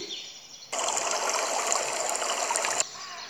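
A steady rush of flowing stream water starts abruptly, runs evenly for about two seconds, then cuts off, with faint bird chirps audible in the background.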